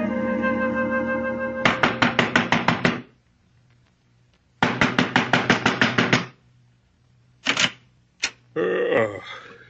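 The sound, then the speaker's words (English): A man bangs on a door in two long runs of rapid, sharp thuds, followed by a few isolated heavier knocks and a short scraping rattle. No one speaks. “You, you banging on the right door, mister.”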